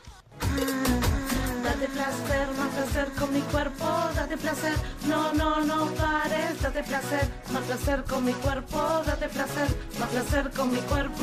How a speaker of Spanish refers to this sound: también hay versión andina de, de esta canción